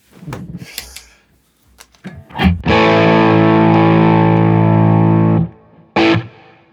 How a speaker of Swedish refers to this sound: Nu ska vi slå på den hemliga double tracker-pedalen. Ja, eh, vill vi ha den med, med eh, någon overdrive? Slå på han Honeybin kanske.